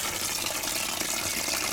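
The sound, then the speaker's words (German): Water pours steadily from a bucket onto cement to mix it, a continuous splashing, gushing stream with no talking, lasting a couple of seconds at an even level. “Einfach hier diesen Eimer nehmen und dann kannst du ein bisschen Wasser auf den Zement machen.”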